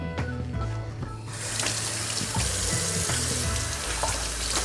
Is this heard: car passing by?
no